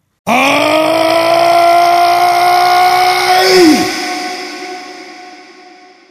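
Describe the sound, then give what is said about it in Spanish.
A voice imitates an angry giant's growl in a told story: one long, rough, throaty groan held steady for about three seconds, then dropping sharply in pitch and trailing off. No words are spoken. “El gigante se ponía malo, muy malo, malísimo y gruñía,”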